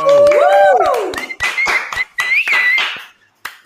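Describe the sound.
A short burst of hand clapping, roughly a dozen quick claps in a loose rhythm, with voices cheering over it, then a pause and one final clap.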